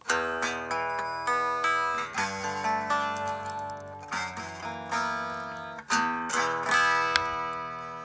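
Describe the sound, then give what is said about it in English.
Bright, ringing chords strummed on a new, unplugged SE electric guitar straight out of the box, about four strums a couple of seconds apart, each left to sustain and shimmer before the next, with no voices. “I haven't plugged this guitar in. I'll do it right in front of you, all right?”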